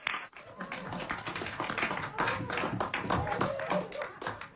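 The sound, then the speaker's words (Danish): A crowd of NASA staff bursts into steady, dense clapping that carries on at a fairly even loudness for several seconds, with some excited voices and cheers mixed in, celebrating Ingenuity's first flight, the first flight of a powered aircraft on another planet. “Ja, det er jo altså lige før, man får lyst til at klappe her i studiet, og som vi kunne høre i klippet, så er de ansatte hos NASA også rigtig begejstrede.”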